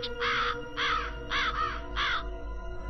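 A raven caws four times in a steady, evenly spaced rhythm, each call harsh and rasping, loud against a low background hum, with no one speaking.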